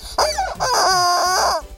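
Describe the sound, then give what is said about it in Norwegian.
A goose honks loudly in a quick run of three nasal, wavering calls that blend together over about two seconds, with no one talking. “Det er en gøyal gås!”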